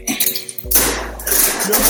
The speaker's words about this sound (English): What was that sound? That was the fridge. I was getting ice from the fridge.